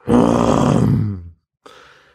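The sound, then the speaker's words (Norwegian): A voice imitates a single-engine Cessna starting up: a loud, buzzing vocal rumble held for about a second, then a brief pause and a fainter sputtering tail. “Det var lyden av uh, det enmotors Cessna-flyet når det starter opp.”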